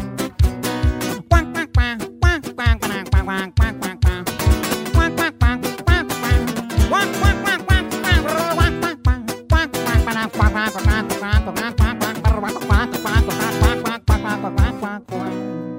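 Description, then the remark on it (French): A musical duck solo: steady, rhythmic quacking imitations made by an instrument or duck call ring out over a busy, loud accompaniment for the whole passage. “Ça s'appelle un solo de canard.”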